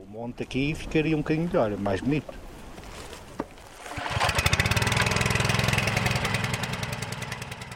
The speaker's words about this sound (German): schmeißt den Motor an. Das Wasser wird durch einen langen Schlauch nach oben auf den Hang gepumpt und landet in großen Plastikeimern.